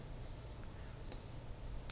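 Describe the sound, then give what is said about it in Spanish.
Two sharp computer mouse clicks, one about a second in and another near the end, over a low steady hum with no talking, as items are clicked and dragged to new positions in software. “Y hacemos clic en el 40 y lo llevamos a otra posición.”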